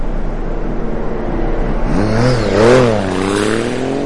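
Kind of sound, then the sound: vehicle, motorcycle engine revving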